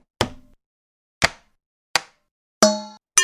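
Five sharp taps and knocks on an electric rice steamer for cooking rice, irregularly spaced, the later hits ringing with a brief metallic, pitched tone before fading. No voices.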